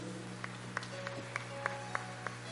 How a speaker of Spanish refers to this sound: Recibimos a Jesús cantando y con un fuerte aplauso para el Rey de Reyes.